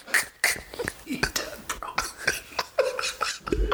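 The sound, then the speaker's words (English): A rapid series of harsh, hacking coughs, fairly loud, coming in irregular raspy bursts with rough throaty breaths between them for several seconds. “Did you just cough up a gremlin?”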